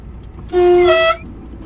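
A single loud, sustained horn blast from a tourist train sounding before entering a tunnel about 109 metres long, lasting about half a second, its steady tone thickening partway through, over a low rumbling background with no one talking.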